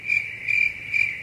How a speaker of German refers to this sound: Hier bitte Grillenzirpen einfügen.